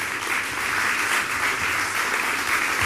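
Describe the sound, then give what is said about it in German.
A live audience breaks into sustained, thunderous applause for the first interview guest, a female systems manager for Meteosat Third Generation. A dense wash of many hands clapping at once holds steady and loud throughout, with no voices standing out. “Deshalb einen donnernden Applaus für unseren ersten Gesprächspartner, in diesem Fall eine Gesprächspartnerin,”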